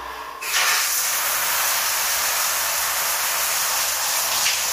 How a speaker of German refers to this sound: Na gut, dann geht es jetzt los mit dem Duschen.